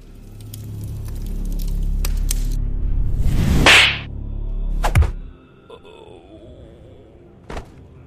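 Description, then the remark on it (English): A fast whooshing swipe rises into a sharp slap across the face, followed by a few lighter thuds and a faint crack, like a staged fight sound effect played loud. “slap across the face”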